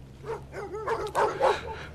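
A dog barks and yips several times in quick, uneven succession, moderately loud, over a faint steady low hum.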